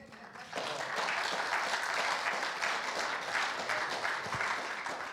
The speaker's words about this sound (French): Donc voilà, je sais que vous leur ferez une standing ovation à la fin, mais je voulais juste avant déjà vous proposer de les applaudir à nouveau.